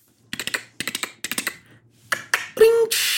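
Quick clusters of computer keyboard typing, crisp key clicks in three short bursts, followed by a brief electronic tone and a rush of hissing noise at the end, made while someone pretends to be Siri.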